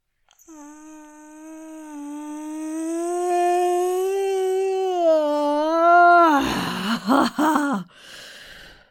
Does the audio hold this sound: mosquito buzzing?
no